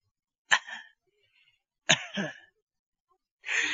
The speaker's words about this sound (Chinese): 忽然间，就听着这个窗户外边有人咳嗽。